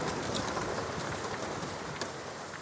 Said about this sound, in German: Ein kalter, leichter Regen fällt auf die kleine Stadt.